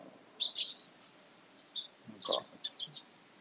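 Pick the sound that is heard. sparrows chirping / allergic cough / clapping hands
sparrows chirping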